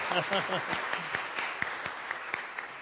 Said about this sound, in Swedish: Då gör vi som i Alfa, vi ger en applåd till talaren.